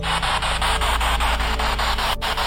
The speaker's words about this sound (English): He's going to use a spirit box. We've used it before, but basically, it's a box that scans through radio channels at a very fast rate.